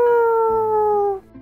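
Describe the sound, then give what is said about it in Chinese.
A voice, performing a parrot, imitates a rooster crowing: a single loud, drawn-out call held on a steady tone that slowly drifts downward before breaking off abruptly. “哇，跟大公鸡的叫声一模一样，太厉害了！”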